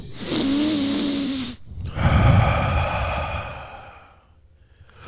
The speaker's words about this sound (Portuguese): O ar entrando pela primeira vez depois de sua morte, entrando nos pulmões de Jesus e Jesus respirando. aquele barulho, esse som de vento, é o som de vida, é o ar de Deus, é o som do seu espírito,